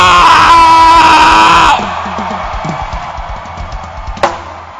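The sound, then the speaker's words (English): A large audience, urged to shout, shouts and cheers together in a loud, sustained roar that cuts off after about two seconds, leaving a quieter murmur of voices and scattered sounds. “You should shout.”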